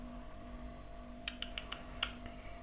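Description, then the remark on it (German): A steady, low electrical hum drones on with a faint tonal whine from a refrigerator running in the background in a kitchen, with a few soft, brief clicks partway through. “Jetzt befinde ich mich in der Küche. Ihr hört im Hintergrund den Kühlschrank”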